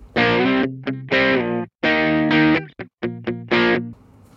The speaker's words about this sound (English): This is the ranking segment. I'm assuming cool guitar music will have played to indicate that we moved on to the ranking segment.